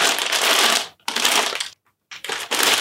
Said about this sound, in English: So can we open the package? Yes, yes. So one of the one of the only good things happened this week is that we got this package. Um, here it is.